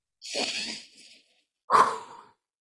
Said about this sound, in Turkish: Bu bir nefes egzersizi. Önce gözlerimizi kapatıyoruz, burnumuzdan derin bir nefes alıyoruz ve hiç beklemeden ağzımızdan üfleyerek veriyoruz.